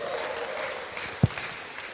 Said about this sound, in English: Give me a hallelujah, amen, clap your hands, whatever you want to do, make some noise.